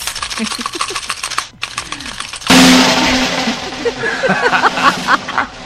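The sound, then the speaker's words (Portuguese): A fast, rattling drum roll plays for a couple of seconds on the Cidade Vejo Notícias programme before a secret is revealed, then breaks into a loud crash that rings on. Voices murmur faintly underneath. “Que rufem os tambores.”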